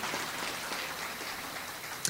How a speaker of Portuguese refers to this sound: Tem algum irmão ou irmã vindo pela primeira vez aqui no grupo de oração? Levanta a mão. Sejam bem-vindos. Uma salva de palmas para esses irmãos.